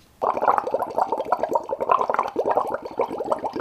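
Shower water runs steadily, a dense, continuous splashing and patter that starts abruptly and keeps going with no voices over it.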